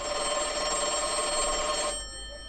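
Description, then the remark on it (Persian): A telephone bell rings in one sustained burst of bright, rattling metallic tone for nearly two seconds, then cuts off, leaving a faint hum. No one speaks. “سرش را میان بازوان گرفته و در سکوت به فکر فرو رفت که ناگهان با زنگ تلفن از جا پرید”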